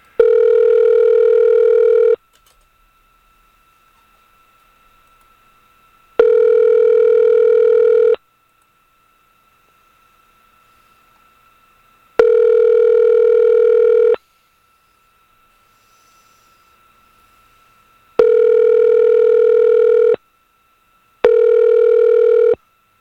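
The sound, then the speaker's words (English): An outgoing Skype call ringing tone repeats five times, each steady electronic burst lasting about two seconds and separated by silent gaps, loud and clear with no voices. “And for that, we are going to dial up the old Skype And we are going to get a hold of a, uh, a comic who is, uh, I believe, going to be talking to us a little bit about the elections.”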